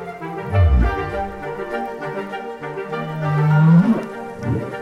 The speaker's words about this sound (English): I think the whoop is a kind of hello to them possibly, Hello, I am. Which raises the question if each whale has their own whoop, could they use it to identify each other?